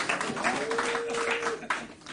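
An audience applauds with a steady, dense wash of clapping that holds for about two seconds. A faint sustained tone runs through the middle of it.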